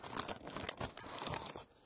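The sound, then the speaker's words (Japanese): Crunchy chewing: a rapid run of crackly, crinkling bites and munches at a soft, steady level for about a second and a half, then it stops. No one speaks. “それじゃあ今日はこの咀嚼音でお別れしようかなと思います”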